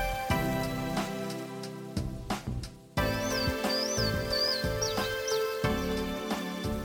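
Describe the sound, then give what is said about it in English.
A marbled murrelet gives a quick series of about five sharp, high-pitched calls, one roughly every half second, set against steady background music with no talking. “Much like the Bicknell's thrush, many of us may go our entire lives without seeing this species, the marbled murrelet,”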